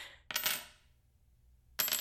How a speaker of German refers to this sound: Warum wirfst du die Münzen in der Gegend rum? Die landen ja hinter der Studiokulisse.